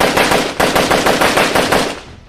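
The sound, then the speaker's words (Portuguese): Rapid machine-gun fire rattles in continuous bursts from upstairs, loud, a dense stream of sharp cracks with a brief break before fading out. No voices. “Tiros são ouvidos lá em cima”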